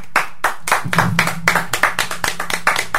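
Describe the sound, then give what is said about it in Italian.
Hands clap in a steady, fairly quick rhythm, a dozen or so sharp claps, like a small group giving brief applause with no one talking. “Direi un applauso noi glielo facciamo.”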